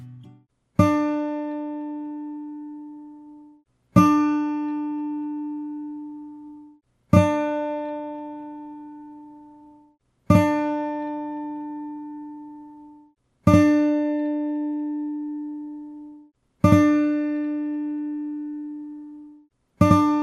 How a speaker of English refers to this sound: and each subsequent setting increased the space by 16 milliseconds, with longer echoes taking up more of your precious 64 kilobytes of space. Here's an example of each setting of the echo using that guitar note I sampled earlier.